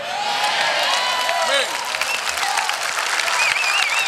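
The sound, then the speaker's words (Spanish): A church audience applauds Jesus Christ steadily, a dense wash of many hands clapping at a constant loud level, with scattered voices and a few high cheers rising through the noise. “Dígale más fuerte ese aplauso a Jesucristo.”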